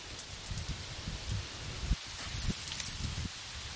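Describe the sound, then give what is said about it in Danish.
Dry leaves rustle and crunch at the right edge of a path, in a steady, uneven series of scuffs and crackles as a person walking along the path steps through them, with no voices. “Jeg går jo lige nu på en sti, og jeg kan godt mærke ud til højre for eksempel. Jamen der er blade.”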